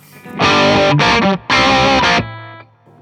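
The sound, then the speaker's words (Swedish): An electric guitar played through an overdrive pedal with the mid knob turned to 3 o'clock plays a loud, gritty phrase of two sustained chord bursts with a brief break, the tone thick and pushed in the midrange, then a low note rings out and fades. “Så vrider jag den på klockan 3.”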